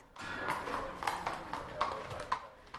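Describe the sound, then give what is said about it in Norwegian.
Hooves of the trotting horse Dancing Queen clop at a steady walking pace on a hard stable floor as she walks toward the exit after being unhitched, several distinct footfalls in a loose rhythm, moderately loud with a faint ambient hiss. “Dancing Queen begynner å skritte mot utgangen med en gang hun er løs.”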